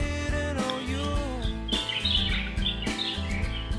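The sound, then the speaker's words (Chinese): Birdsong on a spring afternoon in a garden outside a residential complex, with quick, high chirps and warbling trills repeating in short bursts over a steady, dense bed of sustained low tones; no one speaks. “所以现在应该可以听到各种各样很生动的属于这个春天下午的声音，风声、鸟叫声，然后。”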